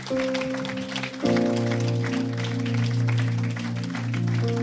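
A church audience applauds steadily to welcome a person, a dense crackling wash of clapping that runs the whole length, while sustained keyboard or organ chords play loudly beneath it and shift to a new chord early on.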